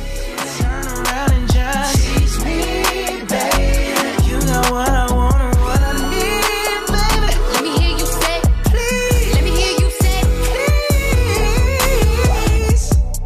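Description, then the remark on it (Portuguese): A pop song plays loudly and steadily throughout, with a punchy beat, full instrumentation and a melodic vocal line running over the top, no talking over it. “Então, se você ainda não escutou, preste atenção na letra da música, que é incrível.”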